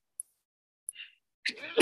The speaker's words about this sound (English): Excuse me. oh, don't start. I got the seasonal allergies. Sometimes I get on one of those, you know, sneeze marathons where it's just like sneeze after sneeze after sneeze.